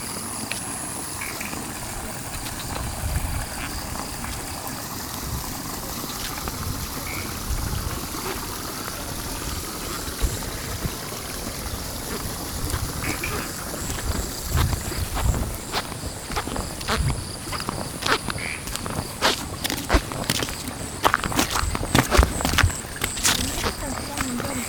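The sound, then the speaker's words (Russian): An evening soundscape by village rice paddies: a steady drone of cicadas, frogs and other creatures over softly, evenly flowing paddy water, with scattered clicks and rustles building toward the end. “Теперь у нас тут вечерние цикады, лягушки, какие-то еще существа.”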